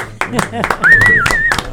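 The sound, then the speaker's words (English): An audience breaks into applause, uneven bursts of clapping rising quickly, with a wavering whistle cutting through the middle and some voices mixed in. “Let's have a nice round of”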